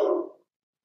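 A single short dog bark, a brief mid-pitched woof that cuts off quickly and is followed by silence, with no talking.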